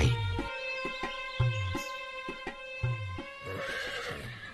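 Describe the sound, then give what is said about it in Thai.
A horse, a royal gift adorned with fine royal horse trappings, whinnies loudly as it is paraded about for people to see, a long quavering neigh with shaky, bright harmonics, accompanied by low snorting pulses and a few hoof thuds underneath. “ปุโรหิตรุหกับ รับเอาม้าพระราชทานส่งเครื่องม้าต้นงดงาม เดินอวดสายตาผู้คนไปทั่วยังภูมิใจ”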